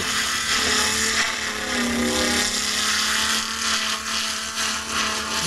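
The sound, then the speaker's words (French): A loud, steady mechanical whine of a sawmill saw cutting planks from a log, running continuously, with a sustained droning motor tone and gritty cutting noise throughout, no voices present. “que la première planche que je vais tomber, si on prend trop de bois, on va, c'est-à-dire manquer le plot.”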